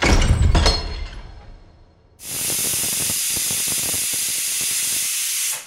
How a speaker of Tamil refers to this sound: கதவு மூடின அந்த சத்தத்தை தொடர்ந்து குக்கர் விசில் சத்தமும் கேட்டுச்சு